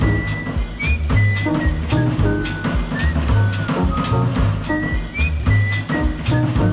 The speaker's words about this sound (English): I heard somebody whistle. I had to stop and listen.